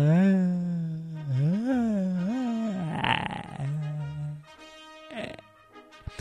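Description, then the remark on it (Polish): A long, drawn-out voiced yawn whose low pitch swoops up and down, turns breathy and strained in the middle, then settles before a brief exhale at the end. “Ej, ziewnę.”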